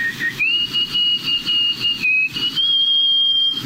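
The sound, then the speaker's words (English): A thin, high whistling from a woman's nose holds steady tones with small pitch jumps and brief breaks, fairly loud over a soft breathy hiss, with no talking. “She says her nose has been whistling since the age of seven.”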